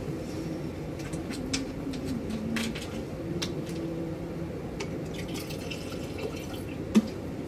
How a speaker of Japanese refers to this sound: なんか雨がポツポツね、ちょっと今日お天気変ですけど。